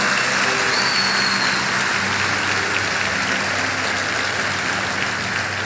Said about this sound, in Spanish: Dale el mejor aplauso que le hayas dado al Señor.